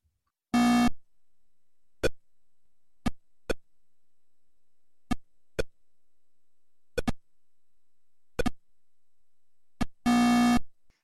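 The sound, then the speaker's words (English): Classic 1972 Pong arcade table tennis video game, played on a black and white television set, beeps: short, sharp electronic blips spaced irregularly as the ball bounces, bookended by a longer buzzy tone at the start and end, with silence between. “I remember being in the cornfields of Indiana in the 1970s playing Pong, one of the earliest arcade video games, on a black and white television set. It was a two dimensional table tennis game that sounded like this.”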